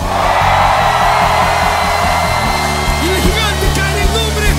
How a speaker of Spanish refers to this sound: Y a la cuenta de tres vas a dar un grito de guerra y vas a ver cómo ese gigante cae rostro contra el piso. Un grito de guerra a la una, a las dos y a las tres.